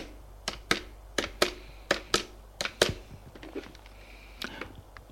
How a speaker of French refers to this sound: Le lendemain matin, à son bureau, Auguste prend son téléphone et fait un numéro.